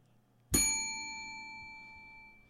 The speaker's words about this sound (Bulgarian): Чули се звънеца, чу се.